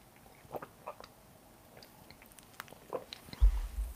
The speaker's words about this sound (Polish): Ale najpierw trzy łyki wody z miedzianego kubka.